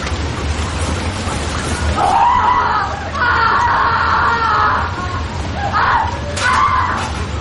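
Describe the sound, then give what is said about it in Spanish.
Several muffled screams and shouts rise in bursts, partly buried under a steady hiss like pouring rain. “y lo guarda en un bolsillo y empieza a quitarse el abrigo cuando oye unos gritos.”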